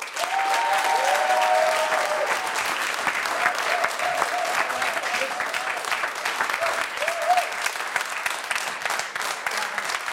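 Sustained audience applause fills the whole stretch, a dense, steady patter of many hands clapping, with a few faint shouts or whoops rising above it now and then.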